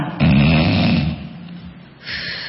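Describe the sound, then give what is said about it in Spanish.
A person imitates a snore with a loud, rough rasping inhale followed by a softer, easier breath out, alone with no talking. “En el roncador es al revés, entra con dificultad en el ronquido y sale más fácil, ¿no?”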